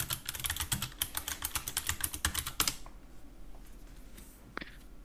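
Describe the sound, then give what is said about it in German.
Rapid, uneven clatter of keys on a computer keyboard, a dense burst of close clicks for a few seconds, then near silence broken by one last tap. “Ich schreibe ihn dir und du trägst ihn dann bitte so dramatisch wie möglich vor, okay?”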